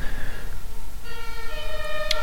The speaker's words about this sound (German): Und da hört man vielleicht im Hintergrund auch schon die Sirene.